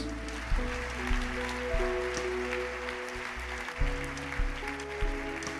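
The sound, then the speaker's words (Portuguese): An audience claps for Jesus after a prayer for healing, a dense crackle of applause layered over sustained keyboard chords that shift every second or so. “Glória a Deus, dá um aplauso, Jesus.”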